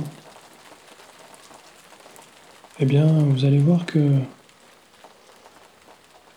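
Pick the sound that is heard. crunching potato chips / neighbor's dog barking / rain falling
rain falling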